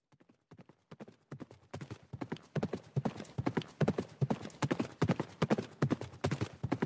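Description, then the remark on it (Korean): Horse hooves clip-clop in a quick, steady rhythm, starting faint and sparse and growing louder and denser as the animal draws near, with no voices: a fast-moving horse on a road coming up right behind a man. “빠르게 걸음을 옮기는 앞말이 바로 뒤까지 바짝 다가온 후에야 그는 말발굽 소리를 들을 수 있었다.”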